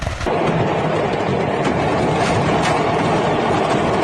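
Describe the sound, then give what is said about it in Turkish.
Dense, continuous roar of a large factory fire with rumbling bursts and cracks as burning products explode, sustained and loud for several seconds with no voices. “Evet patlayan ürünler.”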